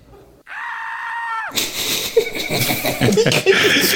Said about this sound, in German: Ich finde den Schrei aber so geil.